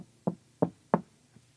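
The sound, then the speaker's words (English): Three firm knocks on a wooden door, evenly spaced about a third of a second apart, fairly loud, followed by a faint fourth tap and near silence. “Okay, I knock on your door.”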